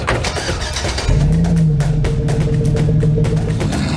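A 2023 midsize luxury pickup truck engine cranks and catches about a second in, then settles into a loud, steady rumble as the truck begins to pull away, with no voices.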